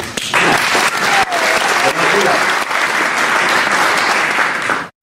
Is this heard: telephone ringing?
no